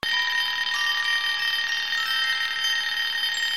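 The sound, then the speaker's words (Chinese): A telephone rings as Li Jun enters the dark room 1401 at night, a call from Xiaopang, with a loud, bright, high-pitched trilling tone that starts abruptly and rings on without a break for several seconds, with no voices. “电话就响了起来，把一向胆子很大的李军吓得倒吸了一口气。”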